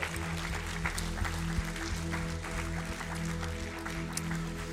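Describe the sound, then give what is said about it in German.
An audience claps for several seconds, a steady crackling patter of hands with scattered sharper claps, over a low continuous hum. “würde gerne so den Leuten, die der die Verantwortung entstehen, die vorangehen, die ziehen, die ihr Bestes geben für den Jesus, für eine junge Generation, euch in diesem Moment einen riesen Applaus geben.”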